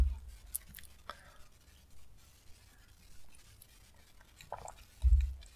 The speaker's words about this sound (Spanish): Pausa para efecto dramático y para trago de café.